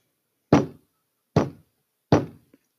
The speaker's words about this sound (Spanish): Justo cuando cerró la puerta, llegó el lobo detrás de él. Y entonces tocó la puerta.